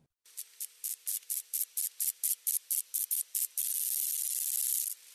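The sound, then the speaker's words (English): A moth's ultrasonic mating call: a rapid series of about a dozen bright, hissy pulses that merge into a sustained high buzz before cutting off, with no voices. “Well, first of all, moths do make sound. They have ultrasonic mating calls.”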